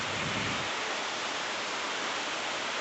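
Steady rain pours down in a dense, even hiss that stays constant throughout, with no voices and no distinct individual drops.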